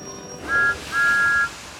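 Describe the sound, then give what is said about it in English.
The whistle of Thomas the steam engine peeps twice to say hello, a short toot followed by a longer, steady one, clear and fairly loud against a quiet background with no talking. “Thomas peeped his whistle to say hello.”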